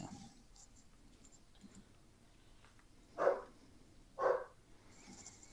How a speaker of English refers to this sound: Puppy.